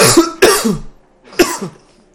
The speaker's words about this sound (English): sorry, I am making myself cough.